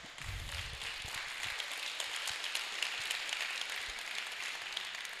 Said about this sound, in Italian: Grazie, applauso.